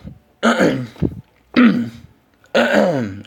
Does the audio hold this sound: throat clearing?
yes